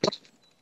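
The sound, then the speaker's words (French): A unicorn's hoof stamps hard on the ground, making it tremble: one sharp thud with a woody crack, fading quickly into a faint ringing tail and then quiet. “Elle donne un coup de sabot sur le sol qui fait trembler. Ça fait”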